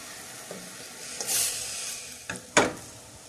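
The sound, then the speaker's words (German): Food sizzles steadily in a pan as it is stirred, while a utensil scrapes and knocks against the pan a few times, with short sharp clatters over the continuous hissing fry. “Bisschen umrühren.”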